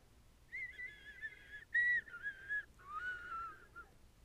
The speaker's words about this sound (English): Then it started slowly making its way out of my room, once again whistling.